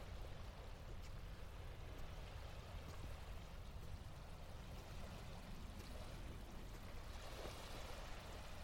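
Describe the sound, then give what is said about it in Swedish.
Steady flowing water laps and trickles continuously, a broad, even wash of sound with small splashes mixed in, unbroken for the whole stretch, with no voices. “Det här ljudet har ju låtit ända sedan oavbrutet ända sedan vattnet kom till den här stenklumpen vi är på.”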